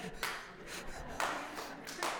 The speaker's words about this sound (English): That's a full out clap, okay? Sorry.